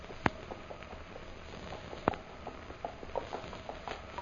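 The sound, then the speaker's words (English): Horse hooves clip-clopping at a slow, uneven walk as a fresh horse is brought, with two sharp loud knocks among softer scattered taps over a faint background hiss. No one speaks. “Here, fresh horse, Most High Superior.”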